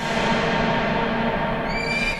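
A horse neighs loudly in one long, continuous whinny lasting about two seconds. It is a dense, harsh, high-pitched sound that holds steady and fades slightly at the end, with no voices.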